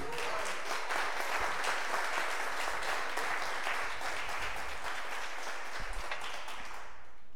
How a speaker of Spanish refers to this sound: Tú eres escogido. Y Dios no se equivocó. ¿Puedes dar un aplauso a Dios por eso?